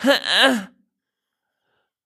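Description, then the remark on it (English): A voice imitates a whiny, indignant protest, the sound made when feeling wronged: two quick drawn-out vocal bursts with a rising-then-falling pitch, fairly loud, lasting under a second before silence. “That's the sound of I'm being wrong.”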